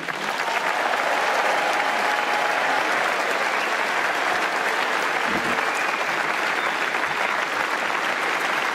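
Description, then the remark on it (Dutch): Sustained, thunderous applause from a large crowd at a party congress, a dense wash of many hands clapping at steady volume from start to finish, with no speech rising above it. “Die een daverend applaus verdient.”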